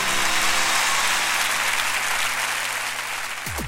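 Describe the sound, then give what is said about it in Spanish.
A crowd applauds loudly and steadily, a dense wash of clapping that fills the whole clip before a low tone sweeps in at the very end. “Fuerte el aplauso para María.”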